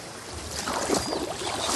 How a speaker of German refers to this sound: Oh, endlich kommen sie mit ihrem Boot.